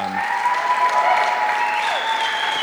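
A crowd claps in a steady, dense round of applause that fills the whole clip at an even loudness, with a few faint sustained tones running underneath.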